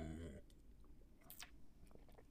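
A quiet sip from a drink: a short slurping hiss with faint swallowing clicks around it, following a brief hummed voice at the start.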